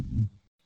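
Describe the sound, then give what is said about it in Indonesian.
A short, low, buzzy fart, loud, lasting under half a second with a rumbling tone before trailing off into quiet. “apaan apaan lu kentut anjing”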